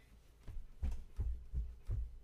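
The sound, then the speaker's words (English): Muffled footsteps of a man walking away thud at a steady walking pace, about six heavy low steps in a row with no voices, staying at a similar moderate loudness throughout. “Those are the footsteps. Him walking away.”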